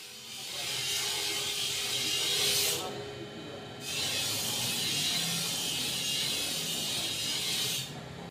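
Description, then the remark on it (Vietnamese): Metalworking noise from a traditional blacksmith forge workshop in Đa Sĩ village, a village famous for its long-standing forging craft beside the Nhuệ River: two long stretches of harsh, rasping grinding, loud, with a short quieter pause between them. “Nhưng nó lại là những thanh âm vô cùng quen thuộc của làng Đa Sĩ, ngôi làng nổi tiếng với nghề rèn truyền thống có từ rất lâu đời.”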